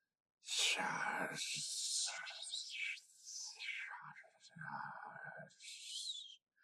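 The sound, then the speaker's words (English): A voice produces a run of breathy hisses and whispered, unvoiced syllables for several seconds, fairly loud, with brief pauses between bursts like an alien hissing language, spoken to a companion. “a series of hisses and whispers”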